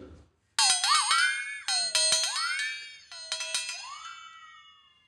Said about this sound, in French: Le flexaton